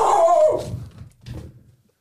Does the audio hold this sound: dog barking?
yes